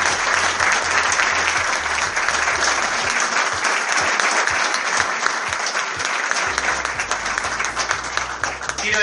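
Sustained audience applause, a dense, steady wash of many hands clapping that stays loud and even for about nine seconds without any voices breaking through.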